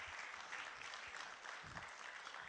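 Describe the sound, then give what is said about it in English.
An audience at a Crossroads worship service applauds reaching 77,000 for its birthday gift to Jesus, a dense, steady wash of many hands clapping at once with no pauses, sustained at an even loudness throughout. “Now that's worthy of clapping to the Lord.”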